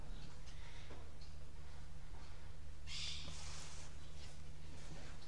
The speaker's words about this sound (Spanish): ¿O quién, quién nos ha enseñado a no escuchar los pájaros que están cantando ahora? Uno se ha acostumbrado a esto. Es una sinfonía que uno no le da bolilla.